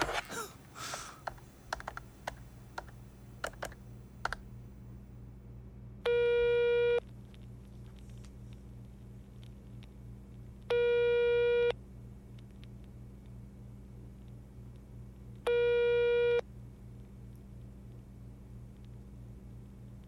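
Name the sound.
telephone call ringing tone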